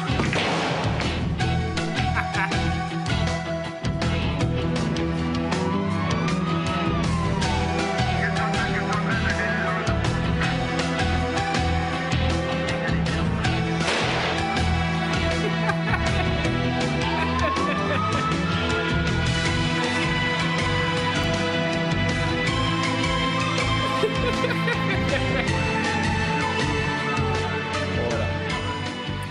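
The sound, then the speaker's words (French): An instrumental TV series theme tune plays steadily and loud throughout, a full band backing a breathy pan flute melody with sliding, swooping notes. No one speaks. “oui, il y a un petit coup de flûte de pan.”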